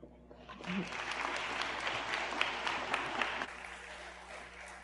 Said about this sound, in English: another round of applause. It's awesome to have someone up here.